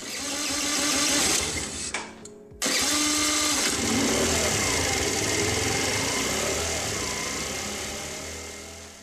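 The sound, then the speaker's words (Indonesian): An old Karisma motorcycle engine being started runs with a rough, buzzing rattle, cuts out briefly after about two seconds, then catches again and keeps idling steadily, slowly fading. No one speaks. “Menyalakan motor karisma tuanya dan bergegas menyambangi sang penyelamat yang nyata.”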